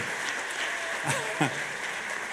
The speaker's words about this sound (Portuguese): Aplauda o Senhor Jesus, aleluia! Aleluia!